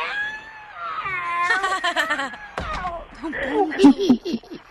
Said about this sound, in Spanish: le metió al gato y el gato está dando vueltas ahorita. Y, lo voy a arrimar ahorita para que lo escuche, ¿eh?